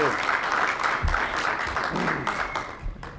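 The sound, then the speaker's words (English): A crowd in Tucson applauds steadily as guest Bruce Logan is introduced, a dense wash of many hands clapping at once, fairly loud and sustained throughout with a few low thumps and faint voices mixed in. “Give it up for Mr.”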